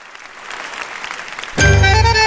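A concert audience applauds in a steady, crackling wash of clapping, then music abruptly starts, loud and sustained, cutting over the applause.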